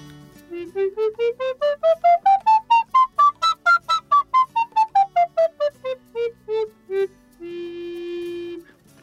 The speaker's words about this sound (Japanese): でアルトリコーダー行ってみたいと思います倍ぐらいのサイズがあね、まあ、大体約1.5倍ですかねで始まりがねファになるんでこれはちょっとまた違うちょっとやってみますね。